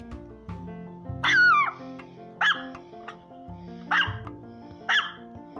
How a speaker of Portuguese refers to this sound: Mamãe estava no quarto dobrando roupas quando Marley começou a latir. disse mamãe para ele. Fique quieto! Mas Marley não queria ficar quieto. Ele latia e latia.